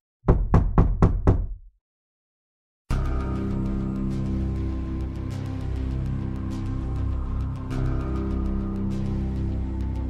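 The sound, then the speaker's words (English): At about 8 to 8:30 p.m., five loud, heavy knocks pound on a door in quick, even succession, then a brief silence before a dense, sustained musical sound swells in and continues. “And then all of a sudden, there's a pounding at the door.”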